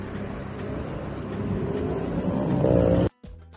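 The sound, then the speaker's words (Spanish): The engine of a 2020 Lamborghini Huracán sports car with about 20,000 miles rumbles loudly, its growl building steadily into a higher-pitched rev before cutting off abruptly, followed by a brief quieter burst. “este Lamborghini Huracán me lo compré gracias a todos mis fanáticos”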